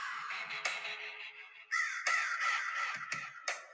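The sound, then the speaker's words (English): Harsh crow caws from the entrance theme of wrestler Raven ring out repeatedly, loud, in an uneven series of raspy calls over a steady noisy background, with no one speaking. “Good old Raven. What about me? What about Raven?”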